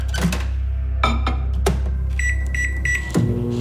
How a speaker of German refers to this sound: Wie funktioniert eigentlich eine Mikrowelle? Ihre Mikrowelle ist nämlich ein Teil drin namens Magnetron. Und das Teil das erzeugt elektromagnetische Wellen.